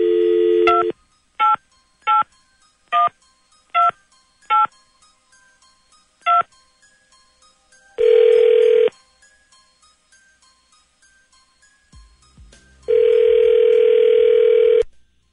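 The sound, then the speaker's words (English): A dial tone gives way to seven quick touch-tone beeps as a number is dialed, then a steady electronic ringback tone sounds twice with a pause between, as the Scotty and the Buzz Morning Show on Power 92 FM places a call. There is no talking. “I mean, if he's going to be that stupid, then yeah, let's call him up.”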